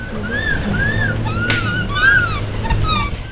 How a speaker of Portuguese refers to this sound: E tem um outro tipo de assobio também que é bem fácil de identificar, que é o assobio de alimentação, que é esse aqui.